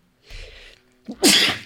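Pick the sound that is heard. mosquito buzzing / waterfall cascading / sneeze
sneeze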